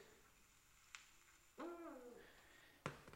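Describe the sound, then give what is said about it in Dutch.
A single deep, hollow hoot of an eagle-owl rises and holds for about a second, clear, with a couple of sharp clicks before and after against a quiet background. “die zijn geluid, Allee, dat is toch een onomatopie? Dat is toch oehoe?”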